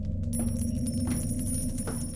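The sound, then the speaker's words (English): A few light metallic clinks of gold coins tapping together sound at spaced intervals over a steady low hum with a faint high-pitched whine in the background. “Look, gold coins.”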